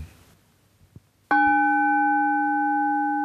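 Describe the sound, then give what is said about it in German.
A meditation gong, sounded to begin a meditation, is struck once after a few soft taps, then rings out loud and steady with clear sustained tones that fade very slowly until the end. “Und dann kommt der Gongschlag dreimal und dann beginnt Meditation.”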